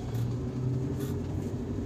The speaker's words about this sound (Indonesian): Wow, belakang ada mobil, oke deh